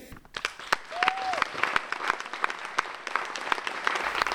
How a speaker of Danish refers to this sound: stående klapsalver efter premieren på jeres øh, afgangsforestilling sidste sommer.